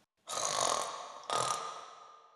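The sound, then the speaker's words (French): Two long, rasping snores in a row, each rising abruptly and trailing off, fairly loud, a person's voice imitating a mother bear snoring, with no talk in between. “Maman ours se mit à ronfler.”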